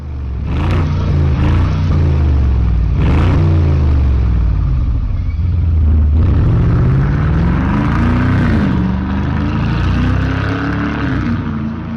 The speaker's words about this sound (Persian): یه ماشین آمریکایی دودر که زیر کاپوت کشیدهش یه موتور 8 سیلندر وی شکل پرقدرت خوابیده موتوری که فقط صداش میتونه ضربان قلب هر ماشین بازی رو ببره بالا